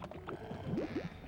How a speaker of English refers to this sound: Hello, that was my stomach. Oh, All this searching's made me hungry.